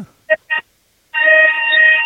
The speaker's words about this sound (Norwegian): Ja, nå gikk det en alarm. Nå, nå, ja.